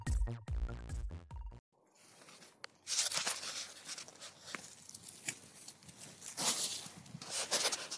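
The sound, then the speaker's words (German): After a short musical snippet, wet squelching steps slosh through mud in an irregular rhythm, each step a soft sucking, splattering burst. “So hört man das. Matschepampe.”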